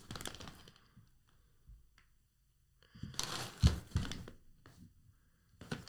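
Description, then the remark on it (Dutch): Crinkling and rustling of a Viva Clandestino coffee package being handled while its printed text is read, in irregular bursts with quiet gaps, the loudest crackly stretch coming midway before a final short rustle. “Er staat iets over die bomen hier op het pakje van Viva Clandestino.”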